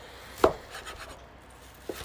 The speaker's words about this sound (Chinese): 好，切切豆腐泡之后呢，待会儿我就要切。